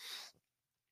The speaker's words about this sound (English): So before I get into it, I just cracked another can. This is one that I was actually very, very excited about.